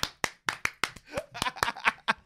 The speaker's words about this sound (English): Okay. Everybody clap their hands.